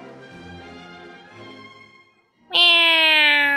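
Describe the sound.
A person imitates a cat's meow for the Lizhi Zoo (荔枝动物园) animal-imitation segment: a softer, drawn-out mewing first, then after a short pause a loud, high, nasal meow that slowly slides down in pitch.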